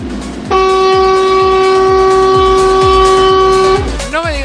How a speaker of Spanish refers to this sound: Madre mía, cómo va el autobús.